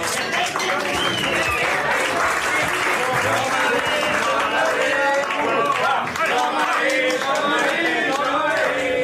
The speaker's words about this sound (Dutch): Geef me een aanmoedigend applaus, mensen. Kom maar.